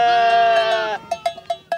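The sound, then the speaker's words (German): A single sheep lets out a long, wavering bleat, fairly loud, followed by a few short clanks of a bell ringing in a loose rhythm. “kann ein Schaf eine Bundesratswahl entscheiden?”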